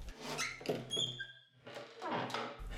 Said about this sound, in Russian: Но самое замечательное в доме были поющие двери. Как только наставало утро, пение дверей раздавалось по всему дому.